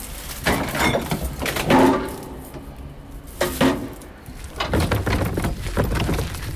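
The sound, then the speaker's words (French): A balcony door opens and the metal hatch of a garbage chute on the balcony of a sixth-floor flat clanks, with several sharp knocks and scraping rattles spread unevenly over a few seconds, no voices. “J'ouvre la porte du balcon et je me dirige vers le vide ordure qui se trouve sur le balcon.”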